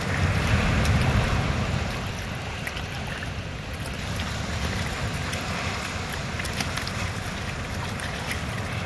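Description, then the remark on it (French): Waves wash steadily onto the small beach right beside the port of Saint-Martin, a continuous rushing noise that swells louder for the first couple of seconds, then settles into an even murmur. No voices. “Le port de Saint-Martin. La petite plage juste à côté du port.”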